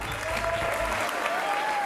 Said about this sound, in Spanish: Y un aplauso para Pedrito Sola.